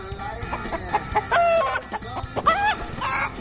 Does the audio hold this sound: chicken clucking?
yes